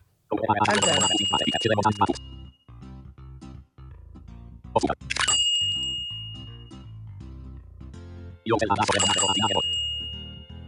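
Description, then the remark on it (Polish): A cash register bell dings three times, spaced a few seconds apart, each bright strike ringing out with a long shimmering tail over a steady low background, as money comes in from selling lemonade. “Słyszycie ten miły dźwięk? No, kasa pada.”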